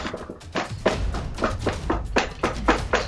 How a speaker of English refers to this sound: The sound of furious banging fills their house.